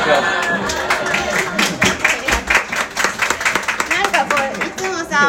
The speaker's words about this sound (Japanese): ラジオさ夜中に2人でさあのボソボソ喋ってるのと違って拍手とかもらうと嬉しいね